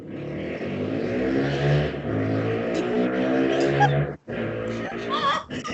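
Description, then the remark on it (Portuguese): A motorcycle engine revs loudly as someone rides past doing a wheelie, its whine climbing and falling in pitch, briefly dropping away before roaring back up. “Alguém passou empinando uma moto, né?”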